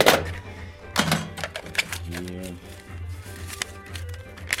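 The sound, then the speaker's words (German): A cash box clicks open, followed by irregular clinks and rattles of coins and rustling as a seated cashier sorts the money at an antique wooden cash table, with faint murmuring voices in the background. “Kassierer nimmt Platz, sortiert nochmal die Kasse”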